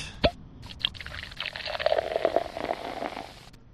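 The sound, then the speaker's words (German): A short sharp click, then a steady gurgle of liquid being poured or sipped for a toast for a couple of seconds, with no talking. “Und ich sage dazu einfach nur Prost”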